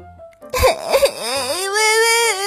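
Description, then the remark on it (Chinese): A loud, theatrical crying wail, like a child's, for a little bear in a children's story crying as it runs out of the house: it opens with a few choked sobbing bursts, then stretches into one long, wavering howl that rises and slowly sags, performed by a voice acting out tears. “小熊边哭边跑出家门。”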